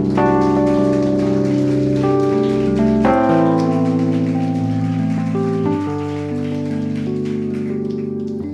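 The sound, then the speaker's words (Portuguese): A steady patter of crowd applause for Jesus runs throughout, layered over sustained organ-like musical chords that shift every few seconds, with no one speaking. “Pode aplaudir a Jesus aí, irmão.”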